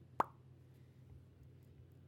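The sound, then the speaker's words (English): A single sharp mouth pop near the start, a voice imitating a plug being pulled, followed by quiet low background hum with no talking. “that's the sound of pulling a plug have you never heard a plug been pulled before that's the sound it makes.”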